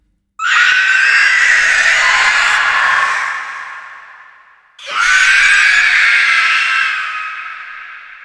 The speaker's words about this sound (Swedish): det är ett fruktansvärt skrik. Och det är så läskigt. Och det är Peter Jacksons fru som skriker.